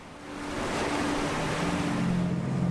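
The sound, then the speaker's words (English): A Coast Guard interceptor speedboat, launched on the move from a cutter on a Pacific Ocean patrol off the Galapagos Islands, drones steadily over the constant rush of waves and wind at sea, its low hum rising slightly toward the end. No one speaks. “An interceptor speedboat is launched on the move from a Coast Guard cutter as more Marines begin another Pacific Ocean patrol.”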